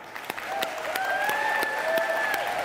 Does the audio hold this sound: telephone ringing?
no